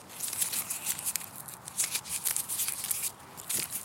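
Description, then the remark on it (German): Dry, crisp rustling and crackling as brittle, ripe, rattle-dry radish seed pods are handled, a steady run of small snaps and scratchy rattles, with no voices. “Und man sieht hier die Schoten, die sind jetzt inzwischen reif, man hört das.”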